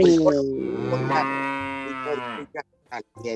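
A cow gives one long, low, drawn-out moo lasting a couple of seconds, rich and harmonic, followed by a few short, soft bursts of sound.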